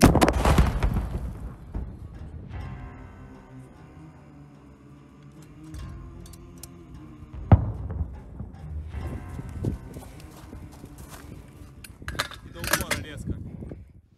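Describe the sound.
A single sharp, heavy blast of a recoilless grenade launcher (SPG) firing a shot at enemy positions cracks out midway, loud, over a steady droning hum and scattered rumbling noise, with muffled voices in the background.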